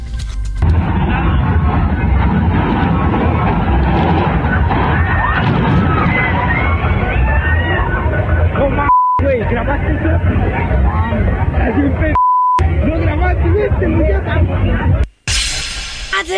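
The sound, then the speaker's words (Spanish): A crowd screams and shouts in loud, chaotic uproar around a fairground ride collapse, with the din cut twice by brief steady beeps and a short dropout near the end. “Hemos visto últimamente un chorro de desplomes de juegos de feria, no solo en México, ¿eh?”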